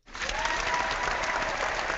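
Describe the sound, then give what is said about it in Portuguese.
An audience breaks into steady applause for the radio station Mundo Livre FM, a dense wash of clapping that starts abruptly and holds at an even, fairly loud level throughout, with no voices standing out. “Eu, eu, eu vou pedir para nossa plateia aqui uma salva de palmas para Mundo Livre FM.”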